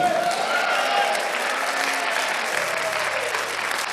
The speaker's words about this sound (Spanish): Vamos, denle un aplauso al Señor si usted lo cree.